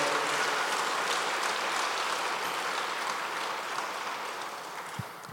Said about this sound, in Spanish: Ahora sí, dale un fuerte aplauso al Señor, porque Él es bueno y su misericordia es para siempre.